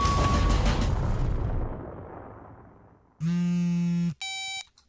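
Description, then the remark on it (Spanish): A self-destruct sound effect after a countdown on the radio program Resistencia Modulada: a loud, booming explosion whose rumble fades out over about three seconds, followed by a harsh, sustained electronic buzz and then a shorter, higher beep. “Este mensaje se autodestruirá en 5, 4, 3, 2, 1.”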